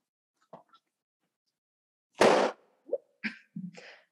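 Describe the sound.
A book is slapped and flapped to make booming, explosion-like bangs: a couple of faint taps, then one loud broad burst followed by a quick run of shorter thumps, with no talking.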